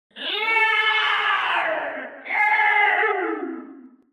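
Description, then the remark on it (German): A high, drawn-out scream from the east rings out in two long wavering cries, the second starting right as the first fades, loud and clear with no talking over it. “Aus östlicher Richtung hört ihr einen hohen Schrei.”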